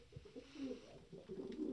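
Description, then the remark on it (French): Two pigeons coo in a soft, low, steady, throaty murmur, a few overlapping coos rising and falling with no talking. “Quand Gerda rouvrit les yeux, deux pigeons roucoulaient au-dessus d'elle et un petit renne lui léchait le cou.”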